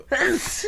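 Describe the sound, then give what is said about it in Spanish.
A single loud sneeze: an abrupt burst of breathy noise with a short voiced tail, over in well under a second. “En nombre de todo el equipo de Gargantúa, le decimos salud al doctor ….”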